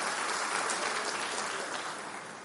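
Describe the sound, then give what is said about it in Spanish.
An audience at a religious service claps steadily in a dense, continuous wash of applause that holds strong and then begins to taper off toward the end, with no voices standing out. “Dale un aplauso y ponte de pie en esta mañana.”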